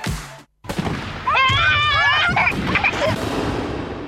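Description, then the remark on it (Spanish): Loud fireworks go off during the holiday festivities, in a Pirotecnia Cero campaign from the Municipio de Morón: a sharp burst, a brief silence, then another blast followed by whistling, warbling tones and crackling pops that continue over a rumbling background. “En estas fiestas, Pirotecnia Cero, Municipio de Morón, Corazón del Oeste.”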